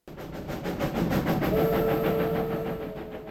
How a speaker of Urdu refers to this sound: بھاپ کے انجن سے چلنے والی تاریخی زگ زیگ ریل بحالی کے بعد ایک بار پھر رواں دواں مشہور اور تاریخی زگ زیگ ریلوے سڈنی کے مغرب میں بلو ماؤنٹینس میں واقع ہے جی ہاں لیڈگو کے علاقے میں واقع زگ زیگ ریلوے دس سال بند رہنے کے بعد اب عوام کے لیے اسے دوبارہ کھول